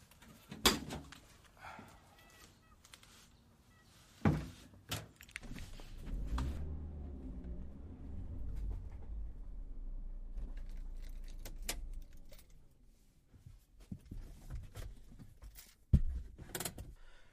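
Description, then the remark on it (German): A bicycle is loaded into a car: sharp metallic clanks and jangling rattles, a sustained low rumble through the middle, then a few final knocks and thuds. “wenn wir mal den Drahtesel in den Wagen hier.”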